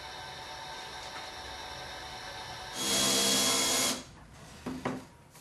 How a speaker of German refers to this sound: Vor dem Lackieren macht der Gregor die Vorbohrungen ins Holz rein. Und ich schleife derweil die alten Biertischschrauben ab.